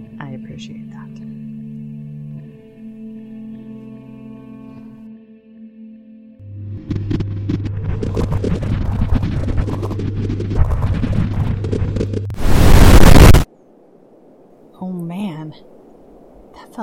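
A sci-fi teleportation effect: steady electronic hums swell into a dense, shimmering whir, then a loud burst of hissing static cuts off sharply, followed by a short, faint warbling tone.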